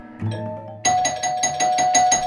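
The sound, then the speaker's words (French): A doorbell rings, a soft chime at first, then a loud electric buzzing ring that rattles in rapid repeated bursts and swells slightly louder toward the end. “Dring fait la sonnette. Dring de plus en plus fort.”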